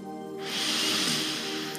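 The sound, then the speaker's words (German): A long, deep breath drawn in during a guided breathing exercise, a steady airy rush that swells and fades over about a second and a half, with a low hum beneath. “ganz tief und atme ganz tief aus.”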